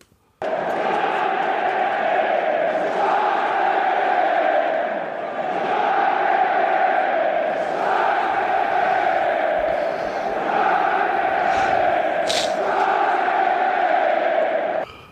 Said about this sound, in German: das hier ist dein epischer Jubel